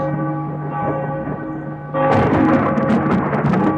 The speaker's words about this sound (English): Before he can bring a spoonful to his mouth, a whirlwind of frightening sounds erupts in his room. Thunder, shrieks, and bells reach a deafening pitch.